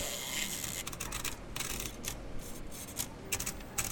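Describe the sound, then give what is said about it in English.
Rapid typewriter keys clack in uneven bursts of sharp, crisp strikes, fairly quiet, with no voices. “Armed with just a typewriter and an open mind, Cubs generates his work through intimate conversations with his subjects.”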